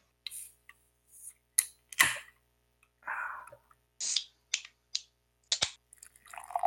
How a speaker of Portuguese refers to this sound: Agora eu vou até abrir a minha breja, você vai abrir a sua também?